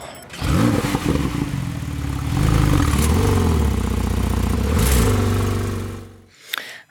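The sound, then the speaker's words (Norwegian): A Porsche car engine revs up loudly, its pitch climbing and falling through several surges over about six seconds, then cuts off abruptly. No one speaks. “Og din bil eh, bruker litt også, kanskje? Det er en Porsche.”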